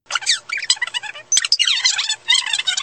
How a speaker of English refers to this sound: If you fast forward this podcast, for example, it would probably sound like this.